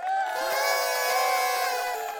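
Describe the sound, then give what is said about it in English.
A crowd cheering loudly in celebration, many voices whooping and shouting together in a sustained, high-pitched burst that holds steady for a couple of seconds. “That's always a cause for celebration.”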